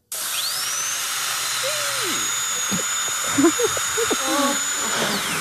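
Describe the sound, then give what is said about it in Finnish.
A high-pitched dental drill whines steadily, rising in pitch at the start and holding a sustained whir for several seconds, with faint vocal sounds and gurgles underneath. “Hammasporo lähtee tästä.”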